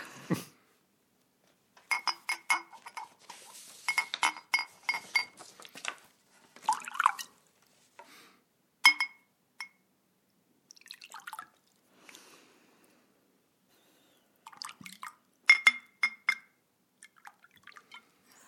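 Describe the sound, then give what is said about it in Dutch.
Liquid is poured into small glasses in several short bursts, with bright glassy clinks and taps scattered between pours, fairly quiet, with no one talking. “Wat zou er in die kleine glaasjes komen?”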